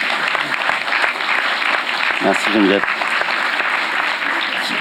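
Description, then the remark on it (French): An audience claps steadily, a dense, continuous wash of applause lasting throughout, with a man briefly speaking over it partway through. “On peut l'applaudir, oui.”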